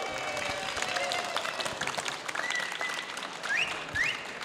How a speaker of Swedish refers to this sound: Och som fjärde sidekick, eller vad ska vi säga, fjärde deltagare idag är publiken, och nu ska vi, vi behöva lite ljud av publiken, ni kan till exempel applådera.